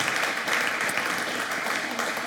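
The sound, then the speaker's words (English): A church audience claps steadily for the worship band, a dense, even wash of many hands with no single claps standing out. No voices can be heard over it. “And uh, can we give a round of applause to these guys who lead us in worship, please?”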